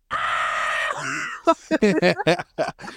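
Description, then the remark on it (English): A voice imitates a man's sudden pained yell on being poked by a porcupine while sleeping outdoors in a sleeping bag: one loud, strained cry held for almost a second, then a quick run of choppy vocal bursts, loud. “Wait, so he actually got poked by the porcupine?”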